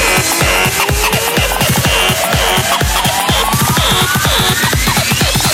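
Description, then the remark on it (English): Loud, heavily distorted electronic music pounds with a fast, steady beat, its gritty saturated layers filling the mix while a tone slowly sweeps upward throughout. “I said more distortion.”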